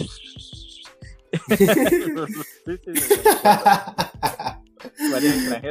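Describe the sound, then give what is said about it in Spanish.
A voice imitates the sharp, hissing Spanish S sound several times in quick bursts, mimicking how Spanish speakers sound to foreigners, mixed with laughter and voiced chatter, fairly loud. “cuando vos sabes como eh, la S es muy española.”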